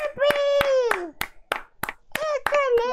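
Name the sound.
applause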